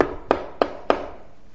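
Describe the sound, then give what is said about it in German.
Three firm, evenly spaced knocks on a wooden door, each a sharp rap with a short resonant ring, followed by quiet room tone. “In einem anderen Vers der Bibel, in Offenbarung Kapitel 3, Vers 20, heißt es, siehe, ich stehe an der Tür und klopfe an.”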